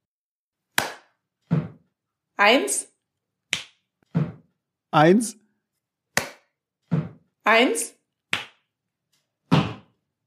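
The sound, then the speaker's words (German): A voice counts aloud in a steady three-count rhythm exercise: the one is spoken, the two is a sharp hand clap, and the three is a low, thudding stomp of the left, non-dominant foot, repeating several times. “Also, das heißt, wir sprechen die eins, wir klatschen die zwei, wir stampfen die drei.”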